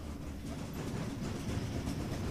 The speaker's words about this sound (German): Das war jetzt das Geräusch der Spieltraktur, also dieser abstrakten, die hier bei Betätigung der Taste in Gang gesetzt werden und somit auch ein geringes Geräusch